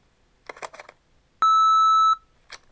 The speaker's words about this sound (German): Bitte hinterlassen Sie nach dem Piepton eine Nachricht oder versuchen Sie es später noch einmal.